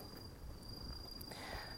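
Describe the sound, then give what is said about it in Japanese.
Bell crickets (suzumushi) chirping outdoors at night on the way home, a thin, high, steady ringing that carries faintly through the whole stretch above a low, murmuring background rumble, with no voices present. “今お家に帰る途中スズムシと一緒に喋ってますね入ってるかな”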